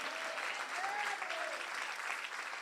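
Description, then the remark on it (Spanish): An audience applauds the Lord steadily, a dense, even wash of clapping that holds at a constant level throughout, with faint whoops or voices rising briefly above it. “Alguien le da un aplauso al Señor y le dice amén.”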